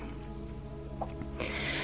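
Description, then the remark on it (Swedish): Soft, steady rain patters beneath a low sustained hum, played for a rain meditation, then swells abruptly into a louder, fuller hiss of falling rain for the last half second. “Meditera till regnet och kraften i bäckenbotten”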